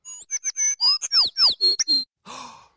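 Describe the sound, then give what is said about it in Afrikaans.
A small bird chirps in a quick series of bright, high tweets and sweeping whistles, clear, ending with a softer, breathier trill after a brief pause. “Julle het reg gehoor, dis 'n voeltjie.”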